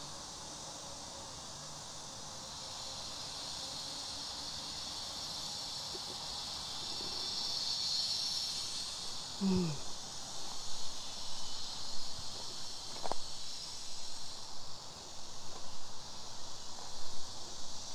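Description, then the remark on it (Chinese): A dense chorus of cicadas buzzes in a steady, high-pitched drone that never lets up, in hot, very sunny summer weather, with a few brief rustles and a short murmured sound partway through. “你听那个声音，全是蝉的声音，对。”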